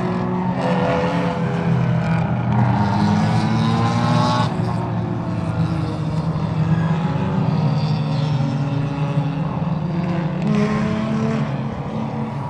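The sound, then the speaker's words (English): A steady stream of race cars drone past at moderate pace on a pace lap, buzzing high-revving engines overlapping with a few deeper, throatier rumbles from a couple of Corvettes, continuous and fairly loud throughout. “It sounds like a bunch of angry, angry bees driving by. Except for those couple Corvettes.”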